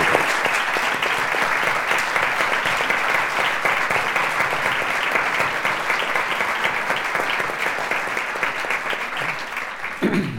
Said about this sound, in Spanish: Ese invitado es Antonio Fraguas de Pablo Forges y yo les pediría hoy a todos ustedes un aplauso en la memoria de una persona que nos invitó muy bien